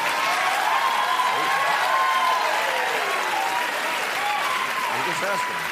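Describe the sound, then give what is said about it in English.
A crowd applauds loudly and steadily, the dense clapping mixed with whoops and cheering voices, holding at full strength for about six seconds without fading. “Do you remember how I was just talking about cheap, stupid applaud lines that people give when they're in it for the likes?”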